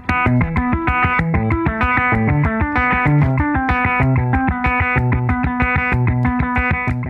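A loud electric guitar drenched in effects plays a steady, repeating riff of bright, distorted notes with a chorus-like shimmer, continuing without pause and with no voices.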